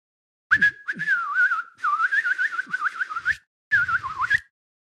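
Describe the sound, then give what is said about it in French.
A white blackbird perched on a hedge by the roadside whistles a bright, warbling song in three fluttering phrases separated by short pauses, fairly loud, with no voices around it. “un merle blanc s'était posé sur une haie au bord de la route. Il siffla à l'intention de Pinocchio.”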